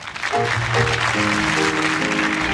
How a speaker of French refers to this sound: Et vous l'applaudissez très fort.